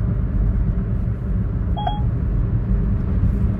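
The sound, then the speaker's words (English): Steady low rumble of a car interior while driving, a constant droning road and engine noise, with a single short electronic beep partway through. No one speaks. “Alright, I'll have to um, pull over my car and call this lady now.”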